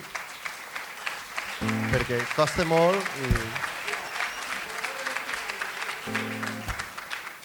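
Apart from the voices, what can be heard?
audience applause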